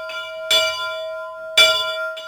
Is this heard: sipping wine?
no